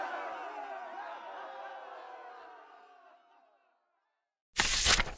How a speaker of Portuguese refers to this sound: a plateia aplaudiu com euforia, com orgulho de Johnny e de seus feitos como um corredor veloz.